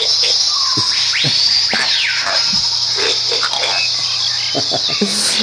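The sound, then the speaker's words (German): Pig grunts and a rising squeal sound amid a steady, hissy background, with short irregular snorts scattered across a few seconds. “kommen wir mit Schweinegrunzen begleitend äh, zu Marvins Tagebuch”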